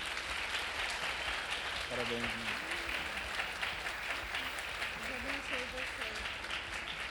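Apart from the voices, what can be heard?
audience applause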